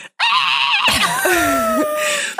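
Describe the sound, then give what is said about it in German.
An adult voice imitates a child's loud, shrill scream, a sustained piercing shriek lasting about two seconds with wavering pitch, alone. “Und mein Kind hat sich hingestellt, sofort einmal laut so.”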